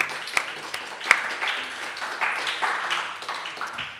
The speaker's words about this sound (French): Bravo, on peut applaudir.